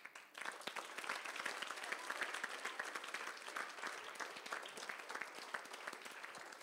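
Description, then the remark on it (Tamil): An audience claps steadily for several seconds, a dense wash of many hands, starting abruptly and holding at a fairly even loudness throughout, applauding in praise of a child from Chennai. “அதை கொடுத்தது உங்களை மாதிரியான ஒரு சென்னை குழந்தை என்பதற்காக அந்த முகம் தெரியாத அந்த குழந்தைக்கு ஒரு பாராட்டு”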